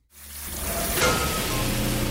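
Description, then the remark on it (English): Water from a burst pipe in a family's house pours and splashes steadily indoors, like heavy rain falling inside, with a brief louder surge partway through and no voices. “We walk inside and it's raining.”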